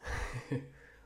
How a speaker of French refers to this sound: Euh, je vais juste boire une gorgée de café.